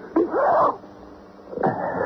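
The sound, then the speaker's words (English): Two loud sneezes from one person, the first with a drawn-out voiced wheezy build-up, the second bursting out sharply a second later. No talking. “Gesundheit.”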